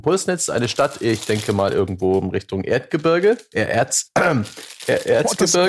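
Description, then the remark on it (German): The plastic wrapper of a package of Pulsnitzer gingerbread crinkles in short, scattered bursts beneath a man speaking steadily, the rustling intermittent rather than continuous. “Das klingt so, als wäre es hinterher unerträglich.”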